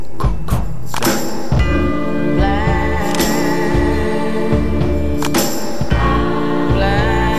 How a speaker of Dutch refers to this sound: Je hoort ook, het is groot, hè. Komt hier zelfs een hmm. bel bij, denk ik.